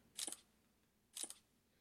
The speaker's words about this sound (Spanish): Acá tenemos en la parte de abajo, en la mitad. Permítanme un momento. El obturador, fíjense. ¿Cómo suena? Esperen.